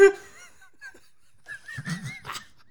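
A goose honks several times: one loud honk, a short faint one, then a quick run of three or four nasal, wheezy honks close together.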